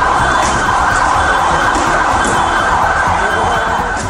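Emergency sirens wail through a dense, unbroken roar of commotion, loud throughout, from riots at a football stadium in Indonesia at the end of a match between two fierce rival clubs; no clear speech stands out.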